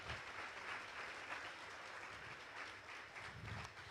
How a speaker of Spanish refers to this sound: Nos da mucha alegría. Aprovechemos de darle un aplauso de bienvenida a ellos.